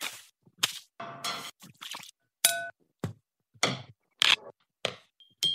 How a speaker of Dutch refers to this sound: Je hoorde hier hoe met een stok geslagen of geschraapt werd tegen achtereenvolgens struiken, een kast, een plas water, een glas, een bed, nog een andere kast, een steen, een boek en een mok.